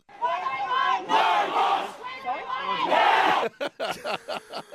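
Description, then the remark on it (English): A crowd of protesters chants loudly in unison against a mosque, many voices merging into a dense roar for about three seconds, then breaking into short, rhythmic shouted bursts with brief gaps between them. “It doesn't make any sense what they're chanting.”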